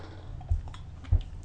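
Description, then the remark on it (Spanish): A quick sip of coffee: two soft, low gulping thumps about half a second apart, faint and without any talking, over a quiet background. “Mientras tanto, me doy un rápido sorbido muy, muy, muy breve”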